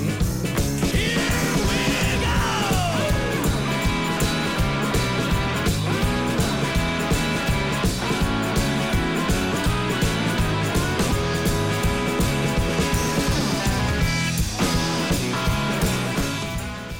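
A full-band pop song plays on a radio show continuously at a loud, steady level, with driving drums, bass and layered instruments. No one talks over it, and it fades slightly at the very end.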